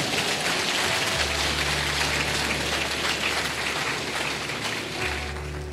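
An audience applauds steadily for several seconds, a dense, even patter of many hands clapping at once, holding a constant loudness with no voices over it.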